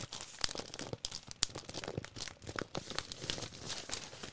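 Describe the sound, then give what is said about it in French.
Continuous crinkling and rustling of newspaper pages, with sharp crackling bursts as the paper is handled and folded, no voices present. “il y a ce bruit. Ce bruit magique du papier.”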